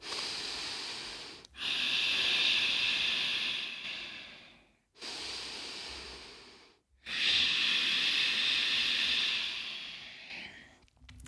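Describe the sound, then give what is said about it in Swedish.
Slow, deep ujjayi breathing, a technique used in ashtanga yoga: a steady hissing, oceanic rasp, four long breaths in and out through the nose, each separated by a brief pause, fairly loud with no talking. “Eh, men framförallt att landa liksom i ett, ett starkt ujjayi-andetag när det andas in genom näsan och nästan väser ut andetaget men fortfarande andas ut genom näsan.”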